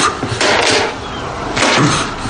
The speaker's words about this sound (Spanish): Cuelga y golpea contra el quicio de la puerta el periódico.